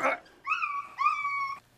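A small dog, Kkotsuni, whimpers in two drawn-out, high-pitched whines, fairly loud, following a brief rustling burst at the start, as it is kidnapped in a film.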